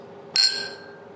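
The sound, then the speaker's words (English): A single bright clink of glasses touching in a toast at the Apple Gin distillery, leaving a high, shimmering ring that fades over about half a second, with no voices. “So, cheers. Cheers.”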